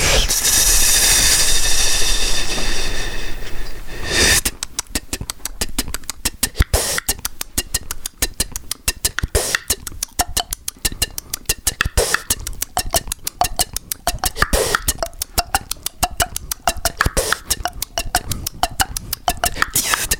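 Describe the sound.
Vocal beatboxing: a few seconds of loud, hissing, whooshing noise give way to a fast, steady stream of sharp percussive clicks and bursts, continuing without words to the end.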